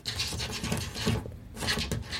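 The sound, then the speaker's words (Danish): Cats' sharp, pointed claws rasp repeatedly against a door, a busy, scratchy scraping in uneven bursts with a brief pause midway, clear, with no talking. “Det her er lyden af katte, der krasser på en dør med deres spidse klør.”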